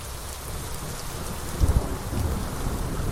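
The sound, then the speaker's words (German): Heavy rain pours down in a steady, dense hiss, and a deep rumble of thunder rolls in briefly partway through. No voices are heard. “Es regnet Katzen und Hunde, heißt es auf Englisch, wenn es sinnflutartig schüttet.”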